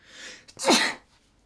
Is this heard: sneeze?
yes